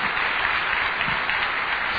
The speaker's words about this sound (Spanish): Jesús, con sangre perfecta, sangre, dele un buen aplauso al Señor por eso